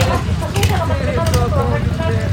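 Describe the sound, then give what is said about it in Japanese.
Racing kart engines roar in the paddock in a dense, continuous drone, their pitch wavering slightly, with indistinct voices mixed into the din. “ここにいるともうエンジン音でわけわかんなくなっちゃうからちょっと逃げますちょっと場所を変えますはいパドックから”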